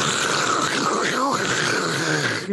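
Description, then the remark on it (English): A voice imitates a hand-cranked pencil sharpener, making a sustained, raspy grinding noise for a couple of seconds with a slight wavering pitch, fairly loud. “I mean, someone would get up and sharpen their pencil, and it's just like,”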